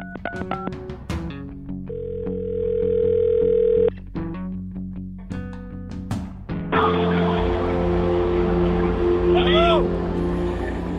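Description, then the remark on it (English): A phone line rings once with a steady two-second tone after some short clicks and blips as a call is placed to a reporter at a Bernie Sanders rally at UNH in Durham, then a loud, noisy crowd-like din from the rally swells up as the call connects. “Let's call him, see what's going on.”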